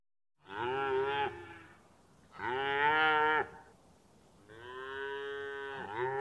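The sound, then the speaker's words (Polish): A cow moos three times in a row, each call long and loud, with short pauses between them and no voices. “Dawniej oczywiście y, w pewnym stopniu do dzisiaj wystarczy gdzieś tam przejechać po wsi, to jednak widzimy, że gdzieś tam stoją jakieś krowy na łące i się pasą y, swobodnie, więc taki sposób hodowli jak najbardziej jeszcze się odbywa.”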